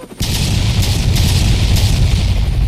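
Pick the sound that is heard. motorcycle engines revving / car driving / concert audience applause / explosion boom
explosion boom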